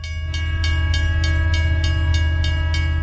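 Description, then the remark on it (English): A Burlington Northern Santa Fe Railroad freight train rumbles past, its wheels clacking in a steady rapid rhythm while a loud, sustained horn blares over the heavy low drone. “the Burlington Northern Santa Fe Railroad, one of the largest cargo rails in the world.”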